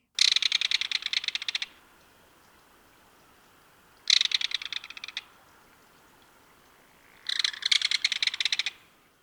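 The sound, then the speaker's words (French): Three bursts of rapid, shrill, high-pitched piping calls from a waterside bird, likely a kingfisher, each lasting one to two seconds with pauses between, clear, with no talking. “Et voici la voix de l'oiseau à l'honneur aujourd'hui.”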